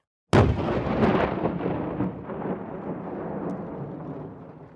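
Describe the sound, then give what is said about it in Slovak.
A sudden loud dynamite blast erupts after a brief silence, breaking Tatra granite on the construction site of a mountain hut, followed by a long rumbling roar and crackle of debris that slowly fades over several seconds, with no voices. “Aj keď dočkal sa od nich aj jednej sťažnosti, keďže sa na stavenisku pri trhaní tatranskej žuly používal dynamit.”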